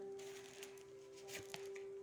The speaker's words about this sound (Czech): Já ještě hodím další karty.